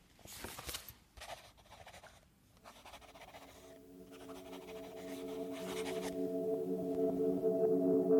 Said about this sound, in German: Dann schrieb sie noch ein paar Zeilen auf ein Stück Papier, das sie anstelle der wundervollen Frucht zurückließ.